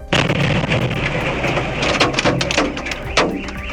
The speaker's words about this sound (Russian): В сети опубликовали кадры детонации в Центре психологической помощи в Калмыкии. Взрывной волной снесло стены и вынесло окна. В офисе Центра психологической помощи сработала самодельная бомба.